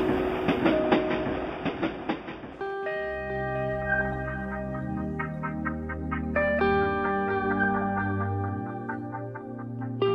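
A subway train running: a rumbling, clattering stretch with rhythmic clicks, then a steady layered electric whine of sustained tones that shift pitch in steps. No one speaks.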